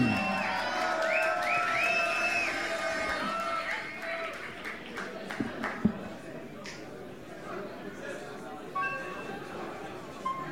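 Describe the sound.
A crowd cheers and shouts loudly for a performer being introduced, with high whistles piercing the roar early on, then the noise settles into a steady, dense wash of voices with scattered claps and yells.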